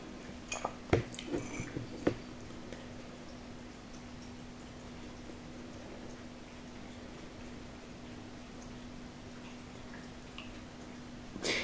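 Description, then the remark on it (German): A dog named Blackie laps water at four in the morning in a quick run of soft, wet clicks for a second or two, then only a low steady hum and faint hiss remain, with a final small knock at the end. “Jetzt trinkt Blackie Wasser.”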